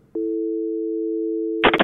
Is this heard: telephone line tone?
yes